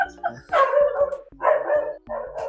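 A dog barks loudly, three drawn-out, throaty barks in quick succession with brief pauses between them.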